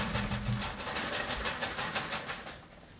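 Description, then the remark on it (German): A tin of chocolate-coated peanuts, bought at a duty-free shop, is shaken in a steady, rapid rhythm, the contents rattling against the metal in continuous bursts for a few seconds, with no voices. “Wir waren im, im Duty Free Shop und haben eine Dose von Schokolade ummantelten Erdnüssen gekauft.”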